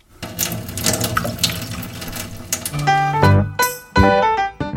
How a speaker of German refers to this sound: Ich drehe jetzt mal das Wasser auf und lasse das restliche Wasser ab.